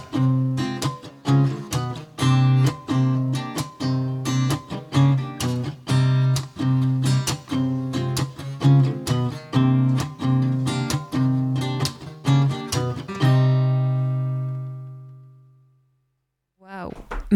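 An acoustic song winds down with steady rhythmic strumming, then a final chord rings out and slowly fades into a brief silence before a faint sound at the very end.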